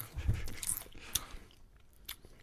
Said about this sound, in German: Ich schmatze hier rein.